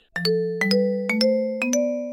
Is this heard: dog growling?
no